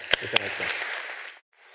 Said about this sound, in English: Please give these folks a round of applause.